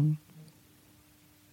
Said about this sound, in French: Pardon, c'est mon téléphone qui vibre.